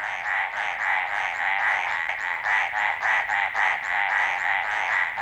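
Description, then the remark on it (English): A dense chorus of mountain tree frogs calling continuously in the Coconino National Forest in Arizona, many rapid overlapping barks pulsing together at steady loudness, with no voices present. “Carlos Davidson recorded these mountain tree frogs barking away in the Coconino National Forest in Arizona.”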